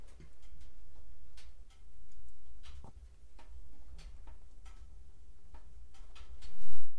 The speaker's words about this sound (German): Aber ich sitze jetzt gerade hier, ja, vor einem Kamin, vor einem Feuerchen, das ich mir gerade gemacht habe. Ihr hört vielleicht den Kamin so ein bisschen knistern, das Holz drin.